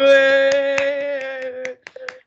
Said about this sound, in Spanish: Un aplauso